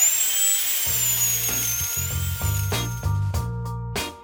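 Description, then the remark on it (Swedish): A high-pitched dental drill whines steadily as it works on a tooth, its pitch wavering slightly, while a low intermittent grinding buzz starts and stops in short bursts beneath it. No one speaks. “Nu får ni ursäkta, för det är dags att ta tag i den här tanden som strulade i början.”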